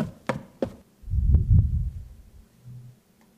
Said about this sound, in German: Du bist auf deinem Hotelzimmer, machst dich fertig ja. fürs Bett, Zähne putzen, ja. Nachthemd anziehen ja. und sonst irgendwas, als es an deiner Tür klopft.